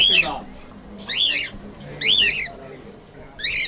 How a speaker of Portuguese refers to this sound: Juvenal trabalha na barbearia por entre papagaios e caturras, em pequenas gaiolas.